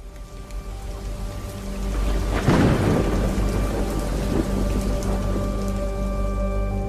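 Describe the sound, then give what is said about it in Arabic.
A winter thunderstorm in cold, rainy weather: steady, hissing rain pours throughout as a sharp crack of thunder breaks a few seconds in, then rolls off into a low, lingering rumble beneath the downpour. No one speaks. “عاد الشتاء ومعه برودة الطقس والأجواء الماطرة”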